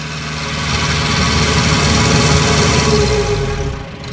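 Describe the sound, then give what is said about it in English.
The engine of Sheldrake 3, a canal boat used by the charity Reach Out Plus for children's canal boat trips, idles steadily, a low, dense mechanical rumble with constant vibration that holds level throughout and eases slightly at the very end. No voices. “The boat we're on today is called Sheldrake 3.”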